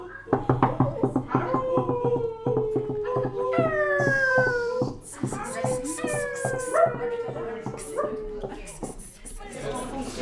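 A dog howls at night in several long, drawn-out wavering cries, each gliding downward, while short sharp barks or knocks punctuate the background throughout; the howls sound clear.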